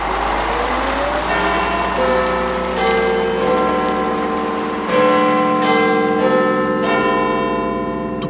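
A clock tower bell strikes several times at the start of the evening, its deep, resonant tones ringing out and overlapping as each hum lingers, over a steady hiss of rain or passing traffic.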